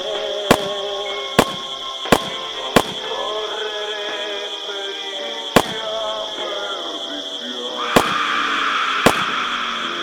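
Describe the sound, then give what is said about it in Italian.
Sharp gunshots of Winchester bullets, stamped with a letter H on the base, crack out at uneven intervals at a young couple in a car, four in quick succession, then three more spaced apart, over a steady high-pitched drone with no talking. “Otto proiettili, marca Winchester, con una lettera H impressa sul fondello.”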